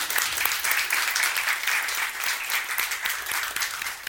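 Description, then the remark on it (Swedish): An audience claps steadily for several seconds, a dense, continuous patter of many hands with bright, crackling texture and fairly even loudness throughout. “Så vi, jag tycker vi ger en applåd, det är modigt.”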